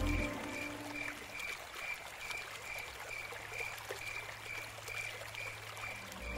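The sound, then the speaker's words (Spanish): The Cauca River flows steadily with a constant rushing wash of water, fairly faint, while a thin, regular high-pitched chirping of crickets pulses above it throughout. “Salvo por el trasegar del río, por el canto de los grillos y el croar de las ranas, todo permanecía mudo junto al cauce del Cauca.”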